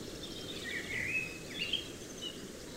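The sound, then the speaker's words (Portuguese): A common blackbird sings a couple of short, fluty whistled phrases from high in a pine tree in a conifer forest, fairly faint, over a steady low outdoor rumble and hiss. “Como esse melro preto, por exemplo falando conosco do alto de um pinheiro.”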